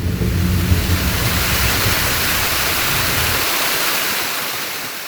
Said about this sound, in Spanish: este sonido es de la cascada que se encuentra en la vía El Salto Guadalupe, cerca al Mirador de la Cruceta. Este es un paisaje sonoro que se disfruta uno mucho en esta región. Estamos aproximadamente a 250 metros de altura.